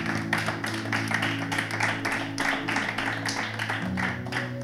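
Steady applause from a group, a dense run of sharp claps lasting several seconds at an even level, with a low sustained hum or musical drone running underneath throughout.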